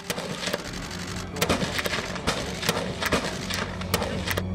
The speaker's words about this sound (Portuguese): Tensão que aumentou ainda mais quando foram ouvidos os disparos da polícia.